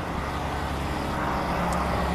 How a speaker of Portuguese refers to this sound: caminhão, peço desculpa,